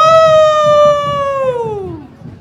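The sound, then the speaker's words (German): A single long, loud howl from a man imitating a wolf during a traditional parade, holding a steady high pitch before sliding downward and fading, with a low crowd murmur underneath. “haben sie einen guten Wolf gefunden. Wenn er loshüllt, dann kommen die Schlecksachen nur so zu fliegen”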